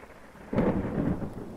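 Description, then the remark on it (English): A deep roll of thunder breaks in after a brief quiet, rumbling loudly and steadily through the rest of the moment with a faint hiss of rain beneath it; no one speaks. “There are 2,000 thunderstorms on Earth every minute.”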